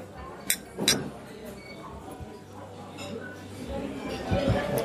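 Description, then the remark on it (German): Glasses clink together in a toast, two bright, quick chimes near the start, followed by a low background murmur of voices. “Ja, erstmal also Prost.”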